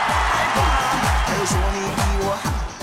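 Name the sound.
applause and cheering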